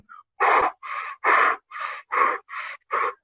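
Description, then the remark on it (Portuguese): Heavy, rapid breathing of a woman inside a space suit, loud, with about seven harsh gasping breaths in a steady, urgent rhythm and no other sounds. “Porque não tem nenhum outro som, é basicamente ela respirando no traje, então.”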